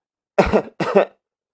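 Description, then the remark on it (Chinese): Two harsh coughs in quick succession, each a short rough burst, with a brief pause between them and nothing else around them. “咳嗽了好几声，唐雨嫣才把要说的话说了出来。”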